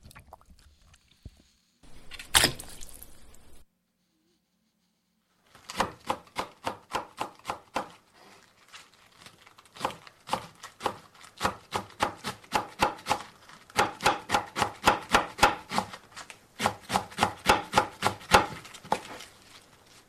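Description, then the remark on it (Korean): Rapid, steady knife chopping on a cutting board in a home kitchen while a meal with rice is cooked, sharp taps in long rhythmic runs after a brief clatter and pause at the start. No one speaks. “이 부엌에서 나는 소리, 밥 짓는 소리.”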